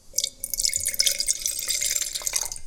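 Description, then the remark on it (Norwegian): Wine from a screw-cap bottle is poured into a glass, a steady bright splashing and gurgling stream lasting a few seconds, with a rising ringing tone as the glass fills. No one speaks. “Og så skal vi helle litt i glasset, da.”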